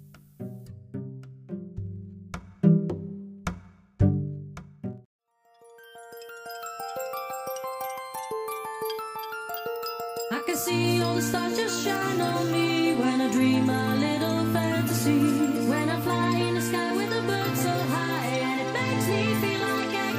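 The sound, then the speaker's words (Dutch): A happy hardcore dance track plays on its own: a few plucked chords, then a rising synth build, then the full fast beat kicks in with bright, loud synth melody. “was er een stel waarvan het lievelingsliedje van de bruid vroeger ook een happy hardcore nummer was”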